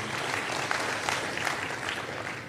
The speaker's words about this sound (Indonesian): Berikan tepuk tangan buat Tuhan Yesus ya.